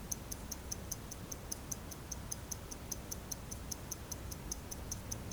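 A clock ticks steadily and quickly, its crisp, even clicks repeating several times a second over a low, quiet background hum, with no voices present.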